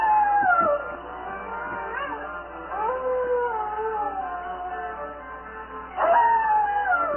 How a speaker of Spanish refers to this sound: los lobos merodean el castillo. Pero no hay nada que temer.